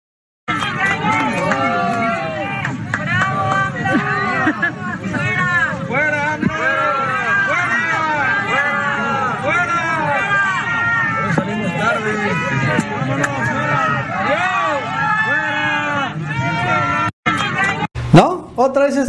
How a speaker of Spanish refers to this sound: Y fue en el avión, en donde también pagaron a gente que volara en el avión para abuchearlo.